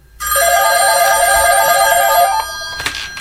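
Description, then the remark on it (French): A telephone bell rings loudly at the Radio Fiat Lux station in one continuous metallic trill lasting about two seconds, then stops abruptly, followed by a soft clunk and quiet room noise. “Le téléphone sonne tout le temps ici, de toute façon.”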